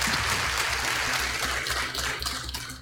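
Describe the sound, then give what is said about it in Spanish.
Steady applause from deputies of a Legislative Assembly, standing to welcome YouTubers, fills the room, with dense overlapping claps sustained for a few seconds before thinning slightly toward the end and no voices heard. “Ahí están los aplausos.”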